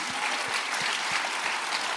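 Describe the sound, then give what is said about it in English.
An audience claps steadily in sustained applause for the launch team, a dense wash of many hands with no voices rising above it. “Can we clap for Let's the launch team? Let's hear for the launch team.”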